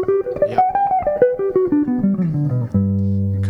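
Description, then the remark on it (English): A guitar plays a G major seven arpeggio, starting in third position and shifting up toward the 15th fret, shifting on the third string, as a quick run of clean, evenly picked notes, climbing and then descending, before ending on a low chord that rings on. No one speaks. “So it looks and sounds like this. This is the G major seven.”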